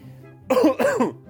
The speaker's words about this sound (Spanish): Ahí llegó el coronavirus. Me, está, dando la tos. Me está dando la tos y todavía no me da el resfrío fuerte.